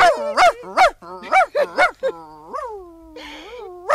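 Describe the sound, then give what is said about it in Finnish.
A small dog barks in a rapid, irregular series of high-pitched yips, some stretching into whiny, rising barks, with short pauses between bursts. “Voi hellan tuutis, kato nyt tuota koiran piskiä.”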